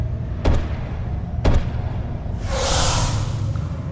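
Heavy granite blocks slide down a pyramid's great gallery with two sharp thuds a second apart, followed by a long, loud grinding whoosh of rushing stone with a hissy edge over a low rumble. The blocks are a security system that forms a huge plug sealing the lower entrance.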